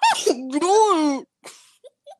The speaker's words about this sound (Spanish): Un momento voy a estornudar.